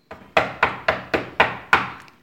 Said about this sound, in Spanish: Mami, ¿puedo pasar? Qué tino, Dios mío. Días peleando porque toca la puerta antes de entrar y justo ahora lo logra.